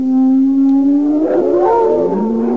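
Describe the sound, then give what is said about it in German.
A steady, drawn-out howl of wild dogs and wolves rises slightly in pitch, then several more howling voices join in, overlapping and wavering in a loud chorus; recorded in Kreuzberg. “Das nächste Geräusch sind wilde Hunde und Wölfe.”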